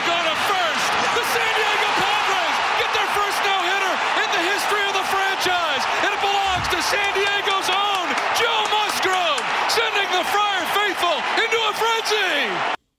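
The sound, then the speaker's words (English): A large baseball stadium crowd in Texas, about fifteen thousand fans, roars and cheers continuously after the last out of a no-hitter, a loud, dense wash of many voices with scattered claps and whoops throughout, sustained at full volume until it cuts off. “I love about baseball is when there's a moment like that the entire crowd cheers.”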